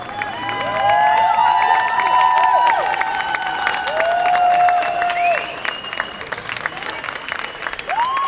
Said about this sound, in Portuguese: Grandes aplausos de novo quando os ativistas voltaram a sair, não muito tempo depois, foi relativamente rápida esta entrada no campo da justiça.